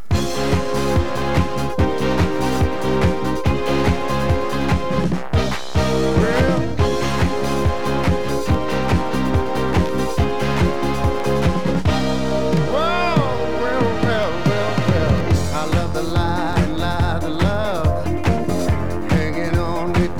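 A soul record plays loud and close, driven by a steady punchy beat with bass and horns, and a sung vocal line with expressive bends enters about halfway through.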